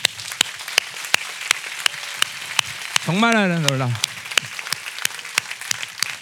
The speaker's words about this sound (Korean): 자 우리 이 영광을 주신 주님께 박수 한번 드립니다.